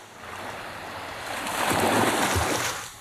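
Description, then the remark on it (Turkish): Sea waves wash in at a beach in Antalya and Muğla on the first day of 2023, where people went into the sea, a steady broad rush that swells louder toward the middle before easing off, with a hint of wind and no voices. “Antalya ve Muğla'da 2023'ün ilk gününde denize girenler dikkat çekti.”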